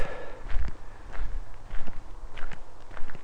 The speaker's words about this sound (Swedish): Genom att gå och prata så här för mig själv så hör jag, känner och upplever hur saker och ting balanseras.